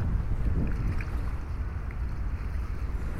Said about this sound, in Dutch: we gaan dus eventjes met een heel leuk klein scheepje op pad. Dit is een onderdeel van de SS Rotterdam.